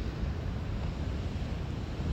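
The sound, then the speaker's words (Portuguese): Heavy, continuous roar of strong, giant ocean waves on an extensive rocky beach with black sand at a cape on the tip of an island in New Zealand, dense and steady with wind buffeting the microphone, no voices present. “E o mar tá bem forte, umas ondas gigantes.”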